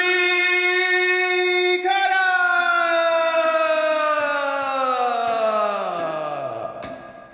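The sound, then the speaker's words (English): A loud, sustained bell-like ringing tone rich in overtones, holding steady before its pitch slowly sinks over several seconds, with a few brief bright dings sounding on top. No one speaks. “But anyway, I did lose my bell, but I found it now.”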